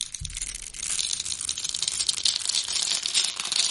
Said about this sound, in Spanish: Seguramente sí lo conocen porque eh, seguramente han visto ese videíto del jabón siendo rebanado en cubitos y el sonido que produce, este.